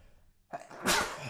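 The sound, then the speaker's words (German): A single sharp sneeze: a quick inhaled catch followed by a loud, noisy burst that trails off, with no talking. “Gesundheit. Mein Gott, danke.”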